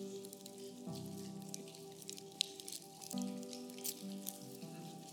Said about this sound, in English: And go ahead and open the juice.